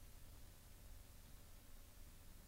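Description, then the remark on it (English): A steady, faint electrical interference hiss runs unbroken throughout, with a low hum beneath it and no speech or other sounds, heard in a new recording space in Detroit. “Now there's some other interference.”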